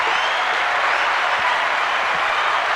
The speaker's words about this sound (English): Round of applause for me.